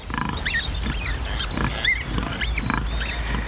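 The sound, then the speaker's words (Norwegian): A sow, Gunda from the film Gunda, grunts in a steady series of low, rough pulses while sharp, high-pitched squeaks and squeals break in repeatedly over the top, all fairly loud with no talking. “Grisepurka Gunda hun har altså allerede sjarmert filmanmelderne og publikum og vunnet en rekke priser.”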